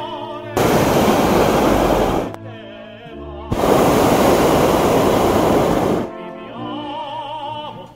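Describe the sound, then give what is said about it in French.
Two long, loud roaring blasts of a hot air balloon burner, each lasting a couple of seconds, with sustained musical tones heard between and after the bursts. “Montgolfière.”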